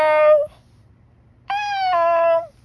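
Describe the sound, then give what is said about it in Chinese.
A man imitates an animal's roar with two drawn-out, high-pitched vocal cries separated by a pause. The second is longer and dips at the end, sounding more like a meow than a roar. “普娜接着又说：“首先是吼叫的方式，呃、叔叔也来吼吼看吧。”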